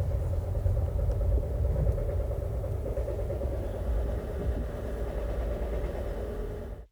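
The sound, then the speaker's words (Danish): A steady, continuous low rumble of a sleeper train rolling along the tracks through Jutland, Denmark, toward the German border, with a constant mid-pitched hum layered over it and no voices, holding even for about seven seconds before cutting off. “Og vi er på vej igennem Jylland, øh, på vej mod den tyske grænse.”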